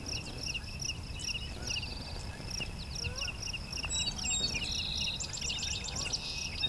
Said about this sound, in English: So we get Song Sparrow right away.